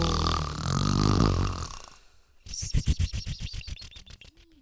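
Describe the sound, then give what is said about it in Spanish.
A voice imitates an owl's loud snore: a long, rough, rumbling drawn-in breath, then a rapid fluttering rattle of pulses that gradually tapers off, with no words spoken. “Muévele un poco como hacíamos con la abuela cuando roncaba.”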